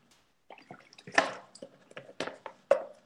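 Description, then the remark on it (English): Someone takes a drink of water: a series of small wet clicks, sloshes and gulps, with a few louder swallows scattered irregularly over a few seconds, no talking. “Let me get some water.”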